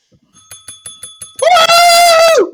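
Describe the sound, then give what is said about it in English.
A small bell is rung in a quick run of six or seven bright, metallic dings, then gives way to a louder, sustained high ringing tone that holds for about a second before cutting off. “ring it again! Ring it again!”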